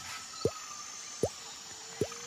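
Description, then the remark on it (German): Three separate water drops plink at a slow, steady pace, each a short bright drip falling from leaves in high humidity, against a quiet, faintly hissing background, with no voices. “Die Luftfeuchtigkeit ist so hoch, dass die Tropfen von den Blättern fallen und euch sanft euer Gesicht benessen.”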